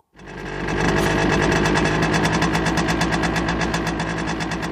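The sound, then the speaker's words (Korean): A small 52cc motorcycle engine starts up and runs steadily, with a fast, buzzing, rattly putter like a sewing machine. It stays loud and even throughout, with no one talking. “이게 소형이에요? 52cc.”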